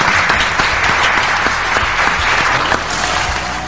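Steady, dense applause from a small crowd, sustained clapping at an even loudness throughout, close and continuous with no talking over it.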